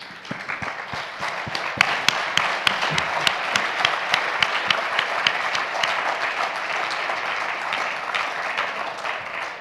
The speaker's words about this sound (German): Wir können ihn, glaube ich, mit einem Applaus begrüßen.